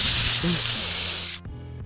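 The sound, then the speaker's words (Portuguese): A voice imitates an aerosol spray, one steady, loud hissing burst lasting over a second before cutting off abruptly into near silence. “Você gozou, em vez de você limpar, você espirra assim na mina um. Tss,”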